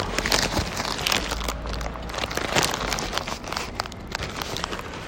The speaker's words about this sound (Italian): allora appoggio il telefono un attimo disinfetto le mani assaggiamo in diretta questo croissant